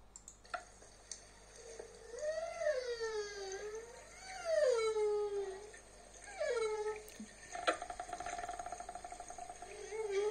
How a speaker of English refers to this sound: But anyway, so here, see if see if you can uh, if you can pick this up. This is um, one song of humpback whales.